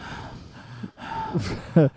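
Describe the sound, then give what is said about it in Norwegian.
A voice imitates heavy, snorting breathing with a couple of rough, noisy inhales and exhales, ending in a short, loud voiced snort-like burst, alone without other talk. “Hva var den filmen vi så igjen, hvor det var en sånn som pusta sånn igjen ja, det er ti minutter?”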